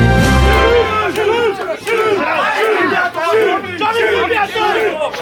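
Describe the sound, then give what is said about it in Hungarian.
A large crowd of protesters against development plans shouting and chanting together outdoors in the Városliget park, Hungary, at the site of the then-planned House of Music, loud and sustained, with many overlapping voices rising and falling in rhythmic waves. “Több mint hat évvel ezelőtt még ilyen hangulat volt a Városligetben, az akkor még csak tervezett Magyar Zeneháza helyén.”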